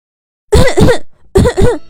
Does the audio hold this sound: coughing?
yes